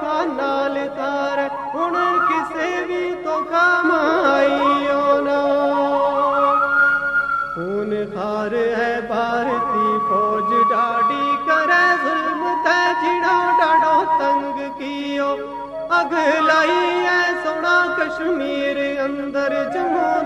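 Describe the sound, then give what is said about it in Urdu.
A patriotic anthem plays loudly and steadily for about twenty seconds, a sung melody with sustained held notes over full instrumental accompaniment, with no one talking over it. “سمین کرام تم نے ترانوں سنؤ”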